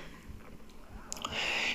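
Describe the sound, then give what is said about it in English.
A quiet, low gurgling rumble of a stomach growling, coming in a few soft bursts and then giving way to a brief rushing hiss. No one speaks. “That was my stomach growling”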